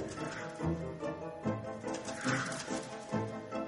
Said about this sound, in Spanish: Algo que sonaba una mezcla entre gruñido y graznido algo muy extraño.